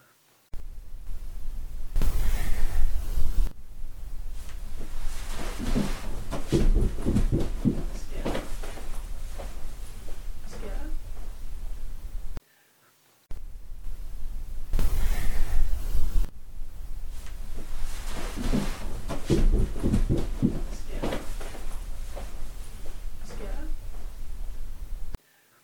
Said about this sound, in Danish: der kan man jo så tydeligt høre, at Morten han stormer ned ad trapperne